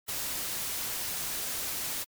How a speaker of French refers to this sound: Par analogie avec la lumière blanche qui mélange toutes les fréquences lumineuses. Un bruit blanc est un processus stochastique qui possède la même densité spectrale de puissance à toutes les fréquences.